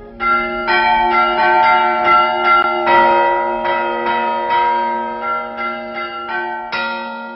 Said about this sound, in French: Un sonneur de cloche dont l'art est en voie de disparition.